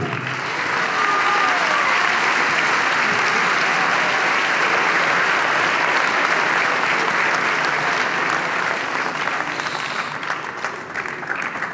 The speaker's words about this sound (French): Applaudissez-le.